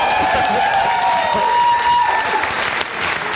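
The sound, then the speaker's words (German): Loud, steady applause from an audience with cheering and whoops mixed in, a dense continuous wash of clapping that holds for the whole stretch, with a few higher shouts rising above it. “Wenn man dafür schon Applaus kriegt, das natürlich.”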